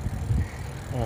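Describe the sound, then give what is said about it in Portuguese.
A small bicycle being ridden outdoors in hot sun at lunchtime, with a steady low rumble and rattle under gusty wind noise, and a brief voice-like hum near the end. “E eu estou indo de uma bicicletazinha e esse é o horário assim que eu consigo gravar.”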